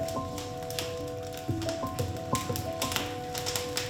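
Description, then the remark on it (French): A wood fire crackles with irregular sharp pops and snaps over a steady low hum, with no voices. “et puis après on entend le feu qui crépite.”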